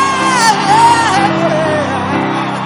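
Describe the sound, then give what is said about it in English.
A church audience erupts in loud, sustained shouting and whooping in praise to God, many voices overlapping in a dense roar, with high cries rising above the crowd noise. “Come on, Daddy's home. Give a fast love scream.”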